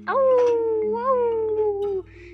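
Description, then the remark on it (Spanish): A single drawn-out wolf howl at night under a large full moon, steady and tonal with a slight rise and fall in pitch, held for about two seconds before cutting off, over a faint low hum. “vieron una luna llena de queso así muy grandota y escucharon aullidos sobre lobos.”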